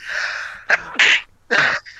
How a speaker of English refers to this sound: Sorry, I'm gonna sneeze.